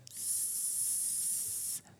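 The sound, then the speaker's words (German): A steady, high-pitched hissing whine from an old tube television that has been switched on, holding at an even loudness for nearly two seconds before cutting off abruptly. No one speaks over it. “Sie gehen jetzt einfach mal in den Keller oder auf den Dachboden und holen sich Ihren alten Röhrenfernseher ähm, hoch, schließen den an, machen den an und dann haben Sie dieses schöne”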